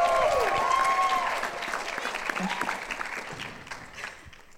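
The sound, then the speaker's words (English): Sustained applause from an audience welcoming a guest, loud at first with scattered whoops, then gradually thinning and fading over a few seconds. “Y'all, give it up for our first guest, y'all,”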